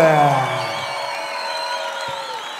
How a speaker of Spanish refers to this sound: Aplauso fuerte, Arica, por favor.